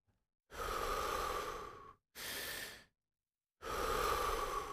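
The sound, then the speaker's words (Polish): Deep, loud breathing during a guided breathing exercise: a long airy inhale, a shorter exhale, then another long breath in, each separated by brief silence, with no talking. “Wdech, wydech.”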